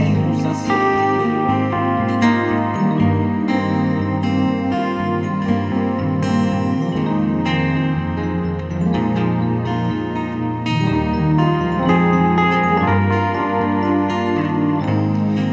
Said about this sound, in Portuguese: Gente, vamos lá, faltam 11 minutos, 10 minutos para terminar o programa e tem um monte de música legal. Vamos ouvir e eu volto para dar um tchauzinho para vocês.